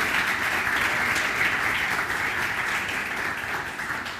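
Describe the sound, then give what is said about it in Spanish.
A crowd applauds the lighting team during a morning gathering, a dense wash of many hands clapping at an even, loud level throughout, with no voices standing out above it. “Vamos a darles un aplauso a los chicos de iluminación.”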